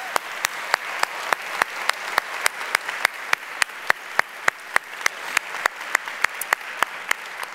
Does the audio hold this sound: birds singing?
no